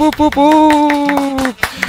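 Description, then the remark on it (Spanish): Rhythmic clapping sounds under a loud, drawn-out vocal tone that holds one steady pitch for about a second, with short sharp claps continuing after the voice drops off. “El maldito aplauso, por favor.”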